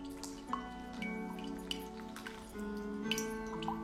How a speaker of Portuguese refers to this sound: Ei, cafezinho incrível. Vamos mandar mais um pouquinho aqui de, de água quente.